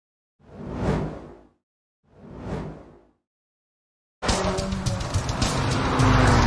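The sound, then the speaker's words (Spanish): The exhaust of an Abarth sports car, the 180-horsepower version, revs loudly twice, each burst swelling and fading, then breaks into a sustained, raspy roar that keeps building. No talking. “¿Habéis escuchado cómo suena el escape?”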